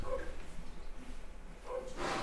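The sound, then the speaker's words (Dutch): A few muffled dog barks, one near the start and a couple more toward the end, over a low background hum. “de hond aan het doen. Ja, hoor je hem?”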